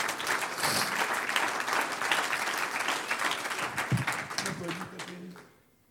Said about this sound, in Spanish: Un aplauso al Señor a ver si nos despertamos.